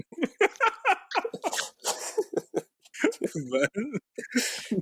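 A dog barks in a rapid string of sharp yelps mixed with whiny, howling cries, fairly loud, filling several seconds with little pause.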